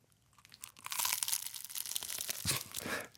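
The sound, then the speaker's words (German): Someone bites into a flaky apple pastry (Apfelplunder) with a loud, brittle crunch, followed by crackling, crinkly chewing sounds as the crisp layers break apart. No one speaks. “So ein mm. Äpfelblunder. nur schon, ich sage euch, wenn ihr uns gehört, jetzt ist zum, ein Plunder. zum Hören, Achtung.”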